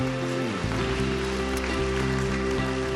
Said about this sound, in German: Komm, lass uns den Leuten mal einen riesigen Applaus geben, die diese beste Entscheidung getroffen haben.